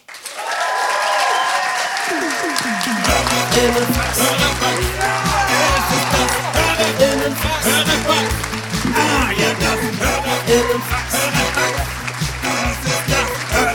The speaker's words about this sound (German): Macht einen riesengroßen Applaus für Max Richard Lessmann.